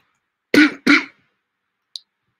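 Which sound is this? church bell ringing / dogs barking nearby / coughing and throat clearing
coughing and throat clearing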